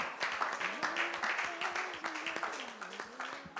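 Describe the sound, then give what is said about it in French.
A church audience claps steadily and densely throughout, offering acclamation to the Lord, with voices calling out and cheering over the applause, fairly loud. “Est-ce qu'on peut offrir une offrande d'acclamation au Seigneur Alléluia.”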